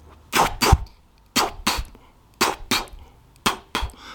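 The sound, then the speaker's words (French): A voice imitates the rotor blades of helicopters passing in slow motion, with breathy, whooshing chuffs in pairs, repeating in a steady, slow rhythm about once per second, fairly loud. “et des hélicoptères qui passent au ralenti avec le son de leurs palmes, mais le son au ralenti aussi, tu vois, ça fait.”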